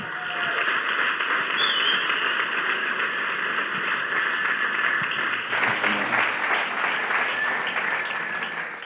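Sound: audience applause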